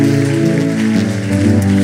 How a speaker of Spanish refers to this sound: ¿Por qué no das un aplauso a todos los que han hecho por primera vez esta oración?